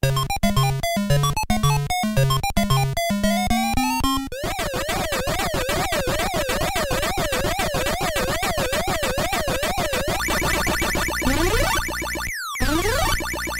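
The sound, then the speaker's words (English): Loud retro video game sound effects from Pac Man Collection on the Atari 7800, played through a POKEY sound chip: quick stepped bleeps, then a long buzzy warbling tone, and rising electronic sweeps near the end, with no talking. “And now here are those same sounds on the Pokey version.”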